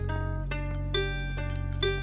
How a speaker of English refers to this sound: Dishes clinked behind her.